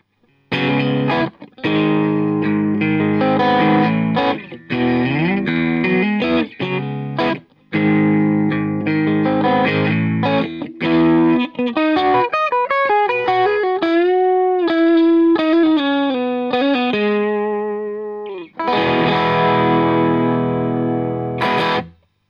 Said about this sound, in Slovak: Sú to asi najpopulárnejšie efekty, ktoré prevedú signál napríklad cez tranzistor alebo diódu, pričom sa snažia dosiahnuť zvuku skresleného lampového zosilovača. Existujú jemné, ale aj high gainové skreslenia. Ako prvý tu máme overdrive.